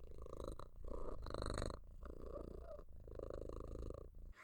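animal, cat purring contentedly

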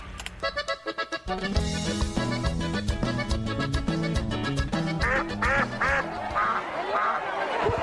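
sound effect, duck quacking sound effect

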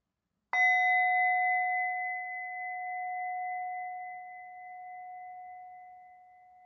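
signal or alarm, meditation bell ringing

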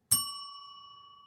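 signal or alarm, bell being rung

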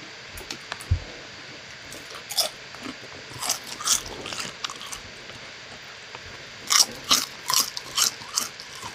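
food or drink, crunching potato chips

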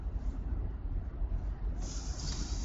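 vehicle, road noise

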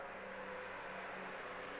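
vehicle, truck driving past outside

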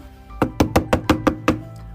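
sound effect, knocking on a door

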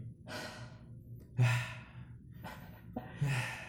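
human body sound, heavy panting

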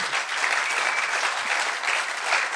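crowd, audience applause

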